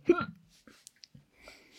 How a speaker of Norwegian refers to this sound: Jeg kommer ikke til å redigere ut det hikket der.